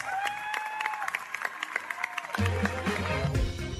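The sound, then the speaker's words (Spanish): A large crowd gives actor Brendan Fraser a six-minute standing ovation for his performance in The Whale, applauding steadily in a dense, unbroken wash of clapping, with cheers and a few whistles rising over it and a low rumble of voices underneath. “Ovación de pie durante varios minutos.”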